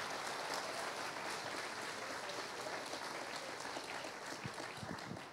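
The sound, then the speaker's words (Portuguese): A church audience applauds for the Holy Spirit during a worship service, a dense, continuous wash of many hands clapping at an even loudness for several seconds, with faint voices mixed in. “Dê um aplauso forte ao Espírito Santo, vamos.”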